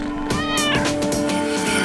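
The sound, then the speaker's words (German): A cat meows loudly, a drawn-out, wavering cry that rises and bends in pitch, with a second short yowl following right after, no speech. “Wenn man keine Ahnung hat, einfach mal die Katze halten.”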